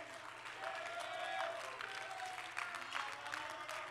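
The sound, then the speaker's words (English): A church audience clapping their hands to the Lord: a steady, dense, continuous patter of many hands with faint crowd voices mixed in, holding a fairly even loudness throughout. “Go ahead and clap a little bit more.”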